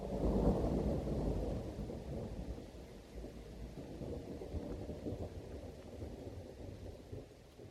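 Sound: thunder rumbling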